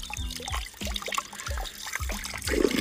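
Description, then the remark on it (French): Water trickles and splashes steadily from a spring, a continuous bubbling flow with small gurgles, fairly quiet and with no one talking. “On vient de trouver une source.”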